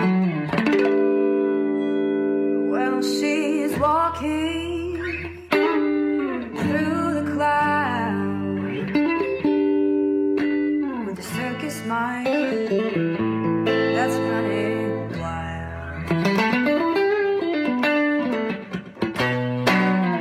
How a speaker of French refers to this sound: Juste à la guitare, sans distorsion, un moment de grâce.